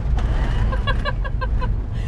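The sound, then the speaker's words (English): A car rumbles and rattles steadily over a washboard gravel country road, the low road noise loud and constant, with a quick run of high, squeaky chirps from leftover water bottles in the back of the car rising above it midway. “apologize for the amount of sound effects that we're going to have because it's a very washboardy gravel road, and I have a back of my car full of um, leftover water bottles”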